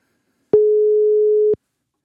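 A single telephone ringback tone while calling a mobile: one steady, fairly loud mid-pitched beep lasting about a second, sounding alone against silence with no voices.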